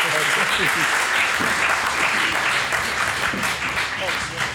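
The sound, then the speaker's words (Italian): Sustained audience applause for a guest at the end of an evening event fills the whole stretch, a dense, steady wash of many hands clapping, with a few voices faintly mixed in underneath. “Alla prossima volta e tanti applausi per lui ancora, grazie mille.”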